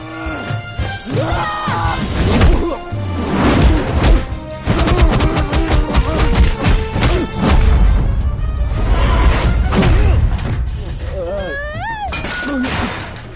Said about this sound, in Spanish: hay un combo al final que se lo da al, al tipo este, que suenan los puñetazos, de hecho, si queréis lo, lo vamos a escuchar porque suenan los puñetazos que dan miedo. Vamos a escucharlo.